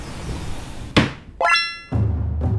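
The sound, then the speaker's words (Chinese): A door of the old Tamsui Japanese police officers' dormitory in Tamsui, Taiwan, is opened: a sharp thunk of the latch, then a rising creaky squeal of the hinge, followed by a low rumbling scrape as it swings, with no voices. “哎，不好意思，帮我开门好吗？”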